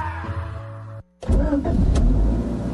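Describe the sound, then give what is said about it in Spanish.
A car engine hums steadily at idle, falls silent for a moment, then roars back louder and rougher with a throaty rumble. No voices are heard. “¿tú cómo haces para que el motor de tu carro funcione tan bien?”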